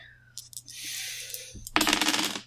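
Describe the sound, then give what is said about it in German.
Dice clatter as they are rolled for an Acrobatics check: a few sharp clicks and a rattling shake, then a loud burst of tumbling on a hard tabletop that settles after a moment. No one speaks. “Oh, okay, dafür würfel ich Scheiße,”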